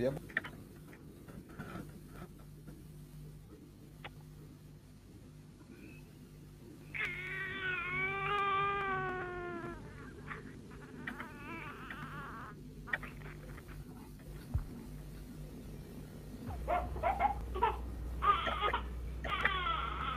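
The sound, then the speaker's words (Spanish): A baby cries in several wavering, rising-and-falling wails, separated by pauses, over a steady low background hum that grows louder toward the end; the cry is part of a recorded message from humans to the cosmos. “beso, un llanto y una madre.”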